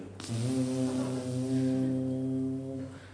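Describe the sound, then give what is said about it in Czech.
A single long, loud trumpet blast holds one steady, brassy low note for about three seconds, sounding full before it cuts off. “Potom oni obcházeli sedm dní a sedmý den měli zatroubit na trubky a všem, všem trumpetistům se třásly ruce, protože nikdo nikdy neslyšel, že by z troubení trumpetistů spadly obrovské zdi.”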